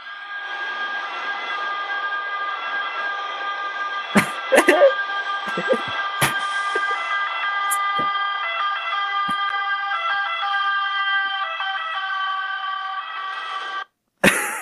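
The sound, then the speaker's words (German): A loud siren drones continuously with a steady, slightly shifting pitch, punctuated by a few sharp clicks and knocks before cutting out briefly near the end. “hört, hört euch einfach diese Sirene an, Digga.”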